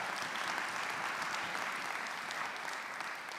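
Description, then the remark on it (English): Sustained audience applause celebrating an audience's first service, a dense steady patter of many hands clapping at an even, fairly loud level throughout, with no voices standing out. “Something worth clapping for.”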